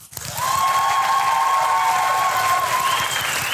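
An audience breaks into loud, steady applause to start off a performer, starting abruptly and holding at full strength throughout, with a few whistles or cheers riding over the dense clapping.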